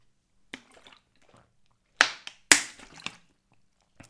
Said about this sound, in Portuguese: E eu agora vou beber aqui um bocadinho de água, que eu já estou todo seco.